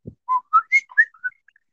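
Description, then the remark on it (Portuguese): Someone whistles an imitation of the WhatsApp notification: a quick run of about five short, clear notes hopping up and down in pitch, followed by a couple of fainter trailing chirps, with a low thump first. “faz aí o barulhinho do WhatsApp.”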